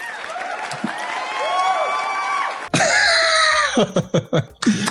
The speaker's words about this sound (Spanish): Un aplauso para esa respuesta, muy bien.